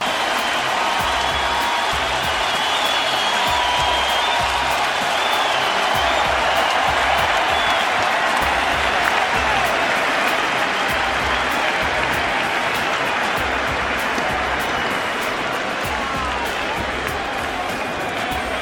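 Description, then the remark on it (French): A large crowd cheers and applauds steadily for the full length, a dense, loud wash of clapping mixed with shouts and excited voices, sustained without letting up. “Tears and cheers.”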